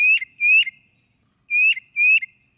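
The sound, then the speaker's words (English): A tufted titmouse call: four clear, slightly rising whistled notes in two quick pairs separated by a short pause, fairly loud and bright, with no voices or other sounds around them. “The tufted titmouse, a natural thief.”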